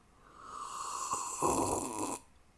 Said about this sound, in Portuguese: Agora vou be bebericar água só para vocês pensarem um bocadinho.